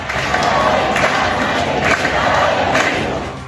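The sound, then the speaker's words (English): A large protest crowd in Iran, part of a new wave of protests despite a brutal crackdown by authorities, chants and shouts in a loud, steady roar, with voices swelling in rhythmic surges about once a second throughout. “A new wave of protests in Iran, despite authorities intensifying a brutal crackdown.”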